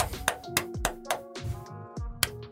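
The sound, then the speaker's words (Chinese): Around eight sharp hand claps, loosely spaced and slightly irregular, over a soft sustained tonal hum in the background. No one speaks. “我必须先为大家鼓鼓掌。”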